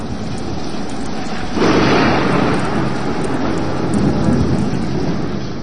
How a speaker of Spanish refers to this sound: Sí, me encuentro en la ciudad reportando una tormenta extrema. Es increíble. El granizo está cubriendo el pavimento por completo.